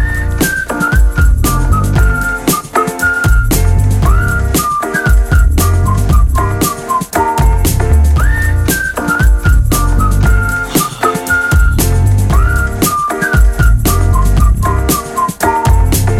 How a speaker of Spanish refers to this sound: nosotros nos vamos a una tandita escuchando … de … con …